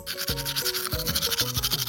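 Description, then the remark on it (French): A toothbrush scrubs the white outer enamel of the teeth in quick, steady back-and-forth strokes, a bright scratchy rasp repeating rapidly, with some low muffled tones from the mouth underneath. “c'est la partie extérieure qui est blanche et que tu es en train de brosser”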